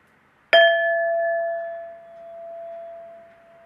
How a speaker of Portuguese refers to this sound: Eu vou bater o sino quando começar e quando terminar. Vamos lá?